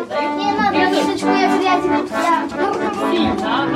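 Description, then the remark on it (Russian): Several high-pitched children's voices chatter and call over one another, loud and continuous, a busy babble with no pauses, in the corridors of a library for the blind in Voronezh, Russia, during a Night of Arts event, with children in bright folk costumes. “Первыми в гости к читателям библиотеки пришли дети – В коридорах слышны детские голоса, мелькают яркие народные костюмы.”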